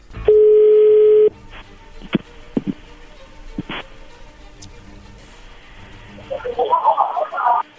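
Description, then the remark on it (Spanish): A single steady electronic ring tone buzzes loudly over a phone line for about a second, followed by quiet line hiss, scattered clicks, and faint muffled murmuring near the end. “Y ya entró la llamada, no haga ruido.”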